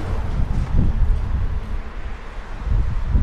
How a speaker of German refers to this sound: Man hört den Wind ganz schön laut.